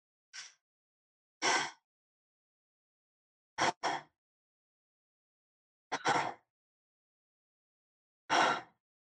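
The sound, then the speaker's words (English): Airy breaths through the mouth in conscious connected breathing, several in a row, some as quick inhale-exhale pairs run together with no space between inhale and exhale, each separated by short pauses of silence. No one speaks. “So, there's no space between the inhale and the exhale, and you're breathing in and out through the mouth.”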